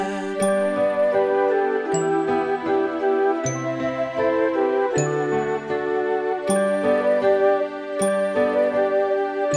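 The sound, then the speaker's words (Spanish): A bright doorbell-like chime rings out about every second and a half, six times in all, over steady, busy instrumental music with no voices. “Rin, rin, suena el timbre, rin.”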